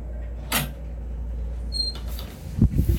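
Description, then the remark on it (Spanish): A door at a house is blown open by strong wind with a quick whoosh, followed by a faint squeak and a few low, rattling bumps against a steady background rumble; nobody speaks. “Hostia, se había visto la puerta.”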